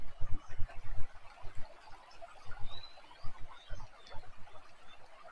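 Frogs croak in a busy outdoor chorus at a water source where spring water wells up, with repeated low pulsing calls mixed among bird chirps, cicada buzz and a steady wash of running water, on a warm day around 20 degrees.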